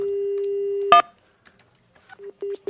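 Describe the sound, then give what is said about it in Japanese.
A telephone call being placed from a radio show to a listener in Kawaguchi City: a steady dial tone, an abrupt click as it cuts off, a short pause, then a quick series of electronic beeps from the line. “川口市の方なのでちょっとお電話してみましょうかはいお願いします”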